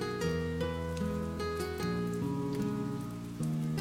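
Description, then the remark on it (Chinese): Rain falls steadily with scattered drops pattering on a surface, mixed with sustained, mellow musical tones that shift pitch every second or so. No one speaks. “嘿，你的城市下雨了吗？”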